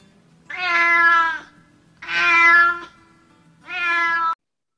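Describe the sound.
A cat meows three times, loud, each call long and drawn out with a strained, complaining tone, separated by short pauses.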